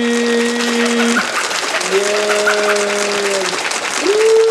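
Dense, steady audience applause at a late-night show held in a home, after a guest tells a joke, accompanied by a few long, sustained tones that rise and hold, like drawn-out whoops or cheers over the clapping.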